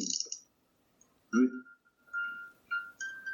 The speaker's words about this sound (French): Voilà, donc euh, celui-là, j'ai mis plein d'effets de petites musiques pour l'accompagner, pour faire quelque chose d'un peu zen.